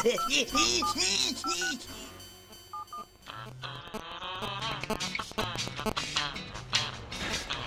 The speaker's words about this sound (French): Qui peut bien appeler une heure pareille